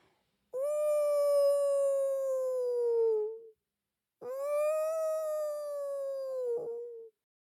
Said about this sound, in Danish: Pludselig lød den samme uhyggelige hylen, som Pelle havde hørt, inden han mødte elverkongen.